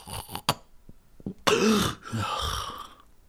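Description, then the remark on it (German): A voice imitates very loud, heavy snoring: a few short throaty clicks, then a loud rasping snort-grunt and a longer choking, gurgling breath, without words. “wirklich das, das richtig heftige Grunzen oder die verschluckte Fliege, so.”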